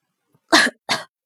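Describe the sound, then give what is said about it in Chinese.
Two loud, heavy coughs in quick succession, each a short harsh burst, with a brief gap between them and silence on either side; no talking. “莫继业重重的咳嗽了两声，祸水眼皮一跳。”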